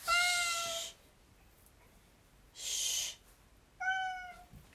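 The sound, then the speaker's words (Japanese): A cat named Lupin meows loudly three times in quick succession at night, each call drawn out with a rising, wavering pitch, with quiet pauses between them and no one talking. “ルパンうるさいよ夜中だから静かにして”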